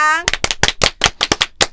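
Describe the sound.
A short burst of hand clapping: about ten sharp, fairly even claps at a quick, steady pace. A brief voiced tone is heard just before the first clap.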